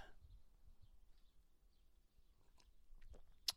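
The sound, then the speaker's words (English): Quiet sipping of hot tea: soft wet slurps and mouth noises, then a small sharp click near the end, with no talking. “Early on tea sip, 45 seconds in. Already got to take a tea sip.”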